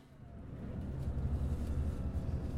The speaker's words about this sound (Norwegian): På bussen fra Sveio tilbake til Bergen sitter jeg og lurer på hvordan vår frøken, som vi hadde som klasseforstander i syv år, var når hun ikke var på skolen.